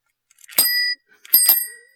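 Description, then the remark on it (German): Two bright metallic bicycle bell rings, one short ring followed by a second that lingers and fades out, clear with no voices; the bell was fetched from Berlin. “Das ist noch die berühmte, das ist die Klingel von den Jungs aus Berlin.”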